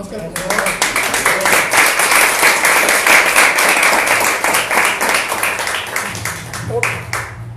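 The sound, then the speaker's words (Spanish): An audience bursts into sustained applause, dense rapid clapping that stays loud and steady for several seconds before thinning slightly toward the end. “Un aplauso para”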